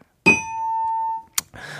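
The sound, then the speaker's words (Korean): A bright correct-answer chime rings out loud and clear, sustaining for about a second before fading, followed by a short click and then a voice starting to speak. “내가 관심법을 보는데 딩동댕인 것을”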